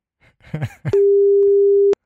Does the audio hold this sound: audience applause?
no